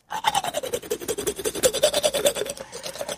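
A toothbrush scrubs teeth vigorously: quick, steady back-and-forth bristle strokes with a wet, mouthy rasp, repeating rapidly for about three seconds with no voices.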